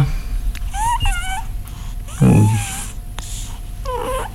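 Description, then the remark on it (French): Raspy, wheezy, laboured breathing from a cat with a long-standing respiratory problem and occasional asthma attacks, during a veterinary examination, with one louder snorting breath standing out, while a few high chirpy bird-like sounds flicker in the background. “On a toujours son, petit trouble respiratoire hein, depuis longtemps.”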